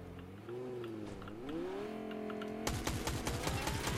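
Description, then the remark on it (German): A video game car engine revs up with a climbing, whining pitch as people drive the car away, then a rapid burst of sharp clattering hits joins in over the final seconds. “Die fahren Auto. Die fahren Auto weg.”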